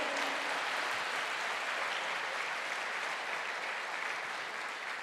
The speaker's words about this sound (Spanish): Aplauden, aplauden al Señor. Yo no les dejo aplaudir.